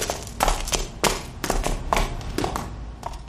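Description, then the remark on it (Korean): Quick, heavy footsteps pound up a staircase as one man runs upstairs, about a half-dozen evenly spaced thuds in a fast running rhythm, fairly loud, with no voices. “한 놈이 층계 위로 쿵쿵쿵 뛰어 올라가더니 한참 만에야 털보를 데리고 내려왔습니다.”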